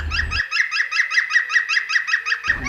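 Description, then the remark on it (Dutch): A male green woodpecker's laughing call echoing through a forest: a rapid, even series of about a dozen loud, ringing notes, fairly steady in pitch, with no talking over it. “Ik vind dat zo kikkergeluid. Het galmt echt door het bos heen.”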